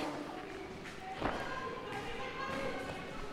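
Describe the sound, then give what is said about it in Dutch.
A chair is set up onto a desk in a classroom with one short, solid thud partway through, heard against a steady background of room noise and faint murmuring voices. “Stoel op de bank.”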